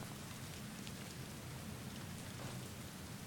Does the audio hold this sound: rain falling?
yes